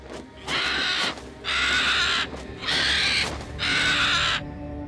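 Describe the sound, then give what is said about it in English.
A bird, Jatayu, perched in a tree, screams four times in a steady rhythm, each cry harsh, raspy and loud, with brief gaps between calls and no voices. “As soon as the sannyasi appeared, Sita heard a bird scream.”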